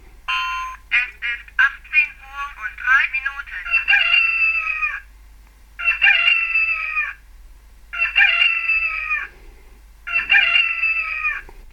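A shrill electronic rooster crow from a talking wristwatch's alarm, beginning with a burst of choppy notes, then three sustained piercing crows repeating at steady intervals, loud, with no talking.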